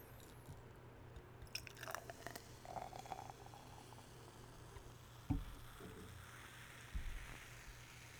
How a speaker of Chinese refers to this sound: 今天要喝一个非常特别的东西，我跟大家介绍，这个不是平常就买得到的东西，这东西就是台糖的沙士。台糖有出沙士啊！来，我们先照往常惯例一样，我们来听一下它爽耳的这个气泡声哦。